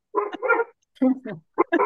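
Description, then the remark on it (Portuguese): A pet dog barks in three quick, loud bursts, each a short harmonic yelp with brief pauses in between. “Olha, o meu cão quer participar na.”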